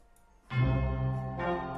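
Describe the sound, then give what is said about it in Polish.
A telephone rings loudly, a bright, buzzing tone that starts after a brief quiet moment and then swells again in a second burst. No one speaks. “bo dzwoni telefon.”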